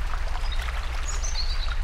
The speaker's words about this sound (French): La rivière est somptueuse. L'eau ruisselle sur les roches.